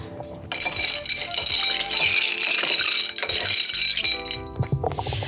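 Ice rattles and clinks steadily against the sides of a glass as a cocktail of Glasgow Distillery Banditti Club rum, lime juice and sugar syrup is stirred, a bright jingling that carries on for several seconds with a few sharper knocks near the end.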